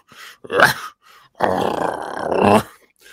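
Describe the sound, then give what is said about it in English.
A harsh, guttural growl rasps out of the static of an SB7 spirit box, outdoors beside a cornfield and a water area. A short burst is followed by a longer, drawn-out snarl that swells before cutting off. It is loud, with no speech. “we were getting some of the most unnatural growls and grunt coming through the SB7.”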